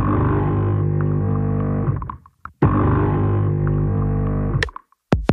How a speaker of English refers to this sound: the sound of a coffee machine in the beginning, I think it's the beginning, uh, of …